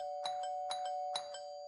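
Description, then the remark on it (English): A house doorbell is rung three times in quick succession to test whether anyone is home, each press giving a bright two-note chime, with a steady tone humming underneath throughout. No one speaks. “As a test to see if anyone was home, we rang the doorbell several times.”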